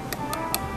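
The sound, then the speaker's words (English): Four light, crisp taps of a finger on a bamboo saxophone reed, evenly spaced in a steady rhythm, against a faint background hum. “this is the sound of me tapping the, the bamboo reed with my uh. finger.”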